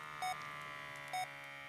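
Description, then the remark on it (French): A medical monitor beeps twice, about a second apart, each tone short and bright over a steady electronic hum. “Bordel de bip.”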